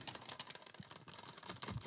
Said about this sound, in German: Hört man das? Oh, Entschuldigung. Nicht aufs Mikro klopfen, wo sind wir denn hier?